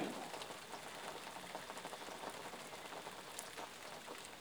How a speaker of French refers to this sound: Et avec cette douce pluie rafraîchissante qui vous accompagnera toute la nuit, c'est naturellement que vous commencez à rêver, que vous baladez.